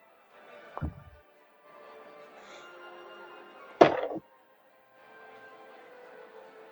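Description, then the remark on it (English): A ten-sided die is rolled onto a table, landing on a one: a couple of sharp knocks a few seconds apart, the second a brief clattering tumble, over a low steady background hum. “I need you to roll me a d10.”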